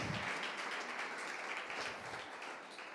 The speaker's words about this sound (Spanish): No, dale un fuerte aplauso que es para él. Amén.